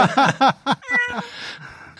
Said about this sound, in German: und sie miaunzen.